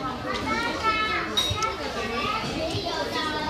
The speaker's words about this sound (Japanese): いろいろ声が周りの声聞こえますでしょうか